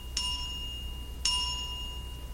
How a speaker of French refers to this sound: L'horloge de l'église sonna les douze coups de minuit de sa voix enrouée.